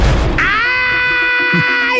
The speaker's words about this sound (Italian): Guy si schianta un masso sul piede e dà la sveglia a papà Grug e mamma Ugga.